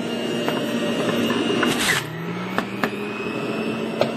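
A juicer's motor whirs steadily, with a brief grinding burst and a few sharp cracks as an apple is crushed while making juice, then the hum drops slightly in pitch and keeps running.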